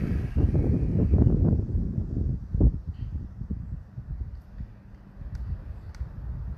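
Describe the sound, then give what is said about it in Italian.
Low, blustery rumble of wind buffeting a microphone, strongest in the first few seconds and then settling into a steadier murmur with occasional gusts. “sentirà un po' il vento sotto”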